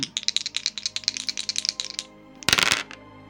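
Dice rattle rapidly in a cup for about two seconds, then spill out onto a table with a short, bright clatter, rolled for a stealth check in a tabletop role-playing game. It's clear, with no voices.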